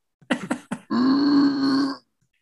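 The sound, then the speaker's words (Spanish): A voice imitates the straining grunts of someone on the toilet: three short, clipped grunts, then a long, tight, guttural push held for about a second. Fairly loud, with no other sounds around it. “O, o los pujidos. Ándale. Esa era la voz gutural que escuchaba.”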